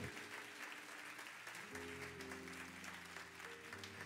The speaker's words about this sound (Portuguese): Quem vai ser certo para Deus, aplaude ao Senhor, diga: Eu quero ser certo para Deus, e errado para o mundo.